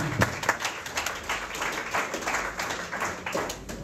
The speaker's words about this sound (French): Victor Hugo, applaudissez pour lui.